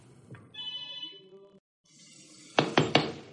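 A mobile phone rings in the bedroom with a steady electronic tone for about a second, then stops; three sharp knocks follow in quick succession.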